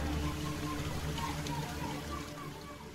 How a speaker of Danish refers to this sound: Der kommer sådan en lyd af vand, og, og nu tror jeg, at jeg skal træde ned i noget.